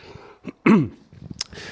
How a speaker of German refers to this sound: ah, sorry. Genau, ich wollte mich zwischendurch räuspern.